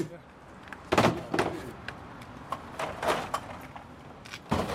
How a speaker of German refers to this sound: Draußen vor der Tür lädt der Bierfahrer seine Lieferung ab. Einen vollen Kasten nimmt er mit einer Hand und erzählt von einem Kollegen, der dasselbe mit fünf leeren Kästen tut.